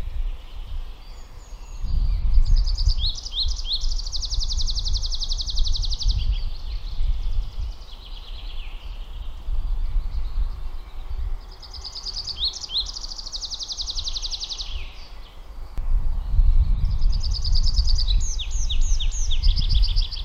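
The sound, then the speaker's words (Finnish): A bird perched in the top of a downy birch, singing in place, sings three long phrases of rapid, high, buzzy-trilling notes, each lasting several seconds with short pauses between, over a steady low rumble of wind. “Niin tässä se nyt on sitten sijoittunut hieskoivun latvukseen ja laulaa siinä ihan paikallaan.”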